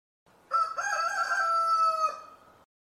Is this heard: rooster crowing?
yes